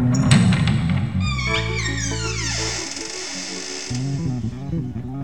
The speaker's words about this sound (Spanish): Se está abriendo el baúl.